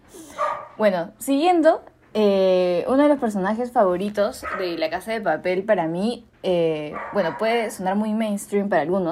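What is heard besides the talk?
dog barking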